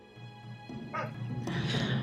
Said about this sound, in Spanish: Ladran perros a la distancia.